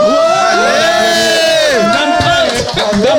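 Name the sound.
audience applause and cheering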